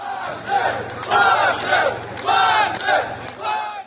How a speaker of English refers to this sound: It was very reminiscent, this is the second point, of the scenes we saw in Rostov on Don at the weekend. With Russians cheering, not Putin, but cheering Prigozhin.